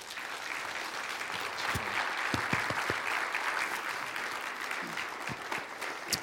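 A crowd applauds steadily for several seconds, a dense wash of overlapping claps with a few sharper individual slaps standing out, holding an even loudness throughout with no voices.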